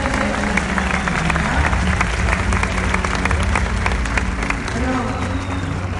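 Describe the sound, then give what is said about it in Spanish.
A crowd applauds steadily, a dense wash of many hands clapping at an even, sustained loudness for several seconds, with faint voices mixed underneath. The applause is for three speakers, one of them a coach, after their talks. “Un fuerte aplauso para esos tres.”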